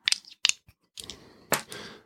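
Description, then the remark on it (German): Embossed dice rattle and clatter across a hard surface: a few sharp clicks, then two bursts of tumbling, knocking rolls that settle quickly. No one speaks. “Es geht, es sind tolle Würfel, die sind so, so einge äh, embossed, nee, wie sagt man auf Deutsch, geprägt. Ähm, macht immer Spaß, mit denen zu werfen, deswegen braucht man auch keine App für.”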